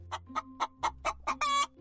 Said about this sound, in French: Et le caquettement, le cri de la poule.